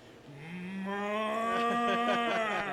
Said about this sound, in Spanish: Una vaca ahí parqueada. Por la vieja de Peñuela, Paponzo, por ahí.